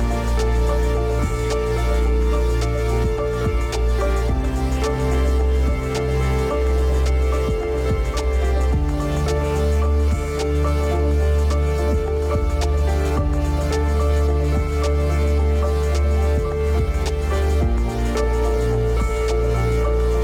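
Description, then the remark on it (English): A continuous, full-bodied piece of music from an electronic musician's solo debut album, with sustained tonal layers and steady low bass, blending electronic textures with acoustic string tones at an even, fairly loud level throughout, with no voices. “That sound is heard on his solo debut album, ….”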